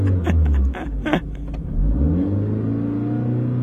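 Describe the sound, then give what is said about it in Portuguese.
A car engine revs up loudly with a few sharp bursts, then settles into a steady, rising drone as the car, secretly taken from a young man's parents, pulls away. “roubou o carro dos pais”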